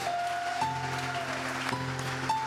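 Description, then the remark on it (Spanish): A church audience applauds to welcome first-time visitors, a dense, steady wash of clapping from many hands, holding at a fairly even level throughout, with a soft sustained musical tone lingering underneath. “Les damos un fuerte aplauso, son bienvenidos.”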